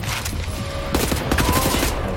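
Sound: video game gunfire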